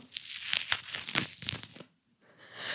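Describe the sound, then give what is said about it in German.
Wet, crackly tearing as a grapefruit segment is pulled from its skin: a run of quick rasping bursts, a brief pause, then a softer, steadier rustle. No talking. “Wenn oh, du dieses ey, Filet aus der Haut ziehst,”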